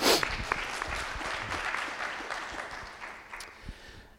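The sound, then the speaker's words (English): An audience applauds steadily, a dense patter of many hands clapping at once, sustained for several seconds at an even level before tapering slightly toward the end. “Yes, applause.”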